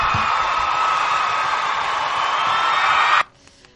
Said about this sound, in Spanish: ¿Y sabes qué se merece esto? ¿Qué? Pues esto se merece un aplauso. Mira, mira cómo aplaude la gente.